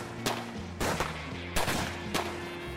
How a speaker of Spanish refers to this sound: Después de una discusión intensa, los dos hombres desenfundaron sus armas y se enfrentaron a balazos.